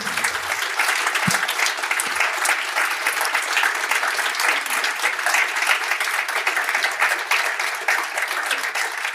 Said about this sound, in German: Äh, ich glaube, es ist vielleicht ein kleiner Applaus hier von äh, können alle.